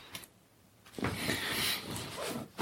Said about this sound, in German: Und die Katze haut gegen das Mikrofon. Lass das jetzt mal.